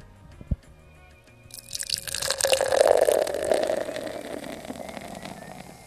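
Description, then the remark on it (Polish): Beer from a freshly opened can pours into a glass after a brief tap, building into a steady, foamy gush of liquid that fizzes and rises in pitch as the glass fills. No one speaks. “Poważnie otwieram puszkę. O, o szlak, troszeczkę mnie zamoczyło. I teraz nalewam.”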